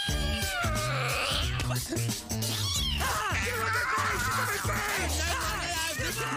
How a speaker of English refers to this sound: Whoa, that cat is obviously defective. What is wrong with you? You're gonna give it a heart attack.